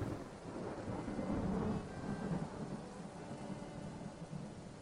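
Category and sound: nature, thunder and rain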